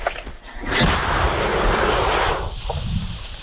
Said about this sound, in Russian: Це міномет, так? Да.